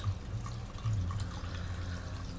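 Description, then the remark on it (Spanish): A mountain stream of spring water flows steadily, with a continuous rushing wash and small bright trickles and bubbling splashes throughout. It sounds moderately quiet, with no voices. “agua que brota de la montaña más perfecta y pura”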